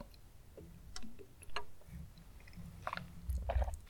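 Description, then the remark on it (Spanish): Someone takes a drink of water, with quiet wet mouth clicks followed by a few soft gulping swallows toward the end. No one speaks. “Pausa para trago de agua.”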